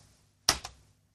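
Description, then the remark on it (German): A single keystroke typing the letter A on a keyboard, a sharp click followed quickly by a softer release tap, heard alone in quiet surroundings. “Hör dir das an, das ist das A.”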